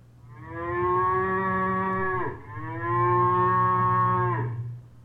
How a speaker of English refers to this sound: Well, that could be Paul Bunyan's uh, Blue Ox Babe.